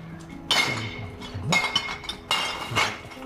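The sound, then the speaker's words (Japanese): Glass bottles clink and clatter in three loud bursts about a second apart, a rattling jumble of glass striking glass as glass waste is collected by garbage collection in town around midday. A low background hum runs underneath, with no talking. “ガラガラス系のゴミですね。の回収をされてる。ガラスをバシバシ取ってきですよ。”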